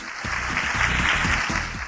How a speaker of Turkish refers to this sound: kendisini alkışlıyoruz, bravo diyoruz, tebrik ediyoruz.